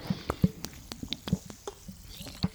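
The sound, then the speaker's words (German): Handling of a water bottle as it is opened and drunk from: a string of sharp plastic clicks and crinkles with soft low gulping thumps as someone drinks, fairly quiet, with no talking. “Wenn ich mir hier jetzt etwas lautstark eine Flasche Wasser aufmache und auch einen Schluck trinken muss, tatsächlich eine Sekunde.”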